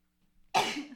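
A single sudden, loud sneeze bursts out after a brief quiet intake of breath, a sharp noisy blast that trails off with a breathy tail. No one speaks.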